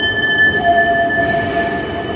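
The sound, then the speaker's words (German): A new tram on a test run in Bern, Switzerland, rolls past, its steady rumble carrying high, thin wheel squeals that whine in sustained tones before fading, with no voices present. “Und zu Bern ist das neue Tram unterwegs auf Testfahrt.”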